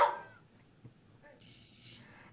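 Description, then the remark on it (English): An unhappy dog named Bruno, being ignored by another dog, vocalizes, opening with a sharp, loud cry, then a fainter, breathy, high whine a moment later, with no talking. “Clearly, the other dog is ignoring him, and he's not happy.”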